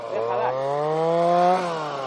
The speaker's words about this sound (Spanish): Ese ha sido el tractor, que ha comido tierra.